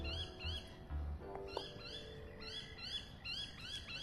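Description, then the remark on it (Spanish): A bird calls over and over in a quick, steady series of short rising whistled notes that sound like "curi, curi", fairly clear above a low rumbling background, with no one talking. “Creo que dice curi, curi, curi, curi.”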